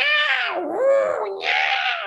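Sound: cats caterwauling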